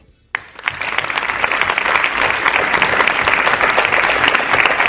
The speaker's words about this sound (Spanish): también pediría un aplauso un aplauso para ellos.